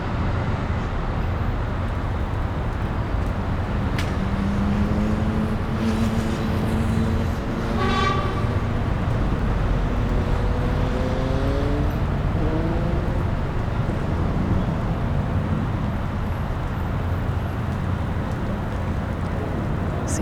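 A steady, dense roar of city traffic heard from a rooftop in London fills the whole recording, with a few horn-like toots rising and falling midway and a brief sharp whine over the constant rumble. No one speaks.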